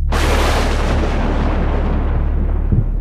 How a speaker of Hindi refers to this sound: दूसरे ही पल जोरदार बादल गरजने लगे और एक जोरदार बिजली कड़कड़ाई